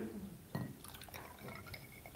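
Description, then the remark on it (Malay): Water sloshes and drips in a glass as it is handled, with a soft knock near the start and faint clinks and trickles following, fairly quiet throughout. “Saya perlukan air ni sebab air ni boleh memberi faedah kepada saya.”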